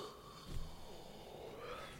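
A single drawn-out, breathy yawn, fairly quiet, with an airy exhale and a slight voiced sweep lasting a couple of seconds; no talking.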